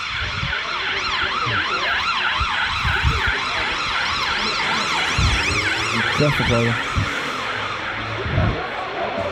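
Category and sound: vehicle, police car siren passing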